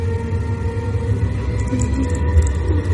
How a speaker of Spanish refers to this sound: El tren está detenido sobre un puente de piedra. luces del tren se apagan otra vez. Alguien está subiendo al tren. El tren sufre una sacudida.